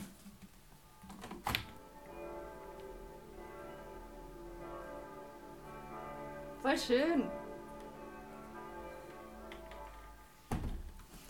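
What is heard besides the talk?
church bells ringing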